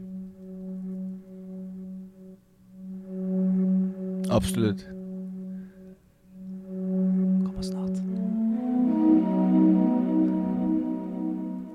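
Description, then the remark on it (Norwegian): Video game music with Japanese-style flutes: a steady, sustained droning tone that swells into a fuller, breathier texture near the end, with a brief spoken word over it. “Så det er sånn japanske fløyter eller sånn asiatiske.”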